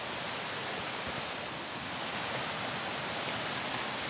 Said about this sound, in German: weil die Ina und ich uns jetzt schon dem Müller Wasserfall im Gesäuse nähern